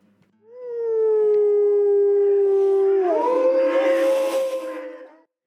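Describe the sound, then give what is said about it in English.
Wolves howling: one long, steady howl that slides slightly downward, joined partway through by a second, higher howl, the two overlapping loudly before fading out together. No speech. “So surprisingly and amazing as this sounds, bringing back the wolves, carved out a new path for the rivers.”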